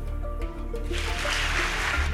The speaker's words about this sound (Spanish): La mayoría del Parlamento aplaudía de pie.